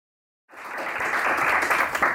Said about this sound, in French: on n'a pas commencé, on est déjà applaudi.